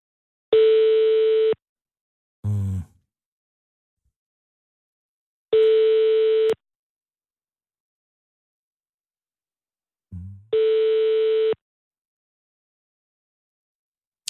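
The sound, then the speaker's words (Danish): A Swedish telephone busy signal: three steady, electronic tones, each about a second long, separated by long silent gaps, with a couple of brief soft knocks in between. No one speaks. “Har du styr på de der svenske telefoner, fordi det gik fuldstændig hen overhovedet?”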